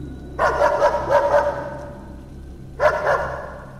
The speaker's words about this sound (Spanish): Momentos después, de repente mi perrita comenzó a ladrar.